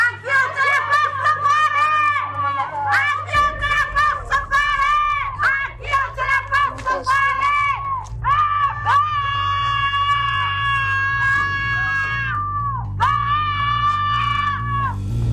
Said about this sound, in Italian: Mentre siamo infiltrati dentro Shalom assistiamo ad un'altra pratica assurda. Delle ragazze chiuse all'interno di una delle strutture della comunità sono costrette a saltare per ore e ore urlando anch'io ce la posso fare.